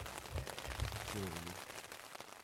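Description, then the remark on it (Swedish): Steady rain patters densely on a waterproof two-person tent, a continuous crackling hiss of many small drops, with a brief low voice murmuring faintly underneath partway through. “Så fort det blir ett litet, litet uppehåll i regnet ska vi springa ut och he ihop tältet.”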